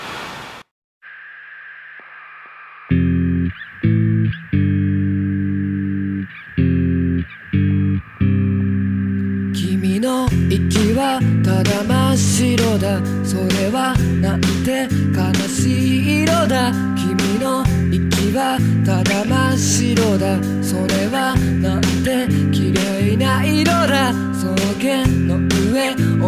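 A rock song opens with a steady high ringing tone, then loud chopped guitar chords in a stop-start rhythm, before drums and the full band kick in and drive on continuously.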